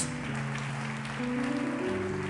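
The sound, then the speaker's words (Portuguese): An audience applauds the Lord in a steady, dense wash of clapping that holds at an even level throughout, with sustained low musical tones shifting chords underneath. No one speaks. “Pode aplaudir ao Senhor com força.”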